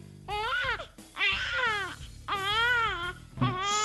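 Loud, close wailing cries come in three long, drawn-out bursts with short gasping breaks between them, and a fourth starts at the end. The sound resembles an infant crying hard, with no talking.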